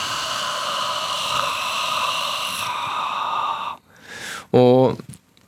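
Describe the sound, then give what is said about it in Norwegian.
A deep, drawn-out breath in, followed by a long, airy breath out, fairly loud, ending with a brief voiced sigh. “God innpust. Ah. Og så lang utpust.”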